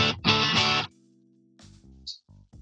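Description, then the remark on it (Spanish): A guitar played dry with no reverb or echo effect: two loud, bright strummed chords, then a quieter sustained note and a few short plucked notes, with no voices. “Acuérdense que así suena normal.”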